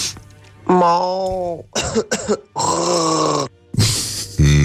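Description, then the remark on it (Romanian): A person fakes a cough with a series of voiced, harmonic bursts: a long strained one, two short hacks, then another drawn-out cough, fairly loud. “Nu, nu, nu, asta strănută nu tușește”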